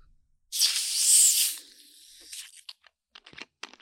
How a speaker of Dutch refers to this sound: een, uh, een spaafles waar iets soort van geel-oranje bruisend uh, drankje uitkomt.